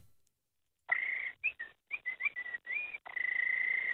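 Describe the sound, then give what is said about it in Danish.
A male caller from Esbjerg whistles over the phone a quick run of short, bright notes, then holds a long steady tone, sounding thin and tinny through the telephone line. “Vi skal bare høre dig fløjte.”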